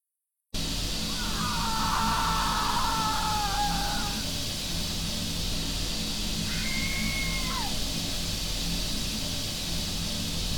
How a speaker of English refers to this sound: A digital recorder caught the scream that plowed into me on the basement stairs. Let's listen to that audio now.